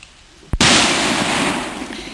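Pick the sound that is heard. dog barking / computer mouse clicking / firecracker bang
firecracker bang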